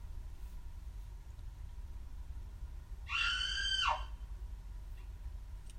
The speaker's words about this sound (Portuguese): Um grito que ecoou pelo lago e fez os pássaros se assustarem.